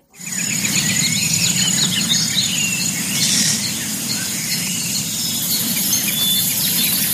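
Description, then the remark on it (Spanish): Dense outdoor bush ambience in South Africa, around the Vervet Monkey Foundation, with a steady chorus of insects buzzing and chirping, scattered bird calls overhead, and a continuous low rumble underneath, with no one talking. “Pero vive en Sudáfrica, en la Vervet Monkey Foundation.”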